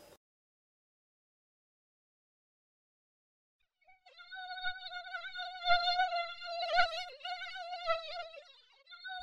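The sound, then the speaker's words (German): After a few seconds of silence, a tiny fly starts buzzing with a thin, high-pitched drone that wavers in pitch and loudness as it circles again and again around a fruit basket beside a bed for several seconds. “Leise umschwirrte die winzige Fliege wieder und wieder den Obstkorb neben seinem Bett.”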